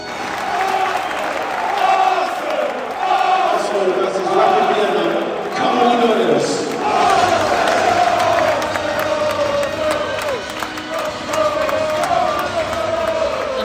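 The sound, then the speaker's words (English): A football stadium crowd of about 2,000 people at a Europa League match sings together as the teams come out, in a loud, steady roar of many voices, with held, wavering tones running through the whole stretch and a dense wash of noise underneath. “Shivers down the old back of the spine to be in a crowd and be feeling something communal and people singing together.”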